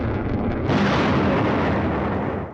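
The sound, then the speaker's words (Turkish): A dense, booming roar of explosions and heavy gunfire, loud, swelling into a fuller blast about a third of the way in and rumbling on without pause: Azerbaijani missile, mortar and heavy artillery fire and drone strikes on Armenian positions near Fuzuli in Karabakh. “Füze, havan, ağır top atışı ve insansız hava araçlarıyla Ermenistan mevzilerini yerle bir etti.”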